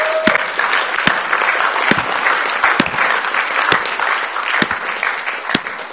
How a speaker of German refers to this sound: Kommt, lasst uns Gott noch mal einen Applaus geben für das, was er tut.